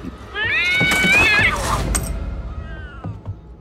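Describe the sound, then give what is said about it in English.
In a scene from the Chucky remake, a cat scratching the boy Andy lets out one loud, drawn-out yowl, its pitch wavering and rising before it breaks off, followed by a few quieter, scattered noises. “The cat scratched me.”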